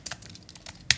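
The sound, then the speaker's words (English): A short burst of typing on a computer keyboard: several quick, light key clicks followed by one sharper, louder clack near the end, with no voices. “Quite frankly, why would you want your keyboards to sound like this”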